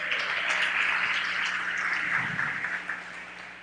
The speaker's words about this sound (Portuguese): E Davi? Matou um gigante, parabéns, palmas.